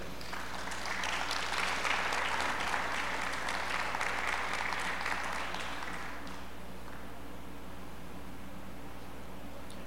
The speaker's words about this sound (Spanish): ¿Alguien puede aplaudir a eso, por favor?